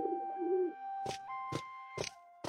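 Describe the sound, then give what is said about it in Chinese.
A soft, low bird coo warbles briefly at the start, followed by four sharp, evenly spaced knocks over a faint steady hum. No one speaks. “温柔的阳光洒在阁中的每一角落，清脆的鸟鸣唤醒了琅琊子弟。”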